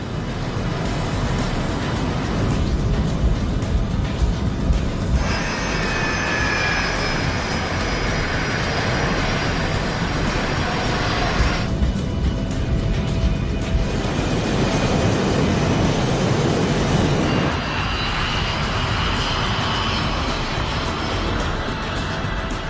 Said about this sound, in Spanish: Hoy están pilotando un avión británico BAE 146 para trayectos cortos. Con unos silenciosos motores turboventilados, está diseñado para vuelos cortos por zonas densamente pobladas.